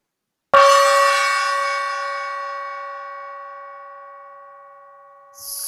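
A single gong strike rings out with shimmering overtones, then slowly decays over several seconds; a faint hiss creeps in near the end.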